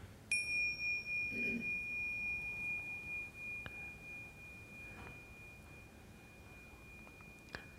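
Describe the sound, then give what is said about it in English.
A single meditation bell is struck once during a meditation, giving a clear bright tone that rings on and slowly fades for several seconds amid otherwise quiet surroundings. “When you hear the bell once, it's not the end of the meditation. I just ring it to remind you to be present.”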